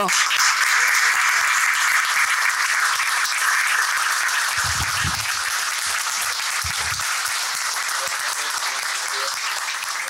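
Sustained applause from a crowd, a dense steady wash of many hands clapping for about ten seconds, loud and even throughout, with a few low thumps partway through.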